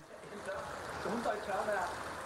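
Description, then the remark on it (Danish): A muffled voice calls out beneath a steady wash of running, gurgling water, the shouting indistinct and smeared as if heard through the flow, with the water noise constant throughout. “er virkelig, han råber under vand”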